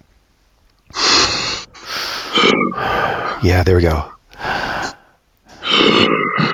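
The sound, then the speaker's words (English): A person voicing an ogre character makes deep, heavy bass breathing like a huge creature: five or six loud, rasping breaths in close succession, broken once by a short spoken phrase. “Yeah, I love that bass breath sound.”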